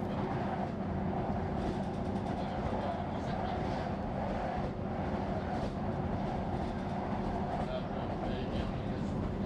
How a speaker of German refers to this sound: Und nachts wiegte sie der Rhythmus des Zuges in den Schlaf.